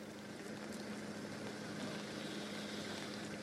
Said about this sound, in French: Vous voyez, il y a des tracteurs euh, d'agriculteurs juste derrière moi, des tracteurs qui sont arrivés euh, ce matin du nord de la France et qui font face à des véhicules